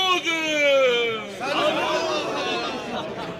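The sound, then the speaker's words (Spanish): A single voice calls out a toast in a long, drawn-out shout, then a group of people erupts into overlapping cheers and excited chatter that carries on loudly until the end as glasses are drained in one gulp. “Se repitió el mismo vitoreo de antes y los vasos fueron vaciados de un trago.”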